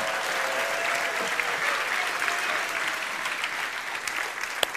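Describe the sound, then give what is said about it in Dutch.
An audience breaks into steady, sustained applause for the children around them, a dense wash of many hands clapping at an even loudness throughout, with no voices standing out above it. “Geef even een groot applaus voor de kinderen om je heen.”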